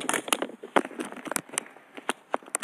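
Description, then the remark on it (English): A phone falls off and clatters against a hard surface, a quick series of sharp knocks and rattles, moderately loud, with no one speaking. “I'm sorry if you heard that my phone fell off.”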